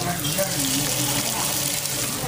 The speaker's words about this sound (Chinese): 然后我们在一起吃烤肉，应该也能听到那个油滋滋的声音。